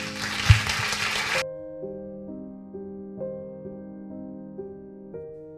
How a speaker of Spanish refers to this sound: Muchísimas gracias y yo creo que ahora sí ella se puede levantar y darle un fuerte aplauso.